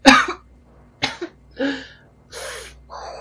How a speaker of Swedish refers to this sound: Jag eh, ja, hostar.